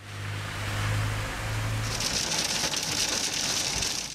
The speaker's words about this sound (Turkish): Adana'da da önce dolu yağdı, hemen ardından yağmur. Sağanak yağış sonrası yollar göle döndü.